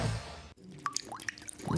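sound effect, water dripping

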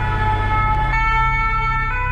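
vehicle, emergency vehicle sirens

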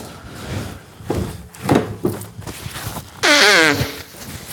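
human body sound, nose blowing

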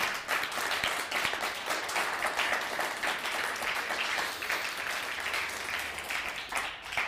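crowd, audience applauding

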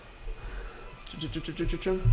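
animal, cat meowing

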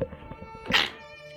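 human body sound, sneeze

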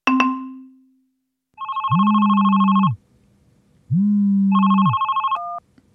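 signal or alarm, telephone ringing

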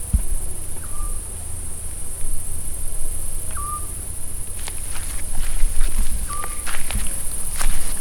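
insect, crickets chirping at night

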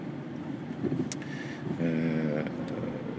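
vehicle, inside a moving car

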